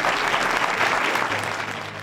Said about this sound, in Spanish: Bueno, pues yo creo que lo que tenemos que hacer en este momento es eso que empezaban, que era arrancar el aplauso.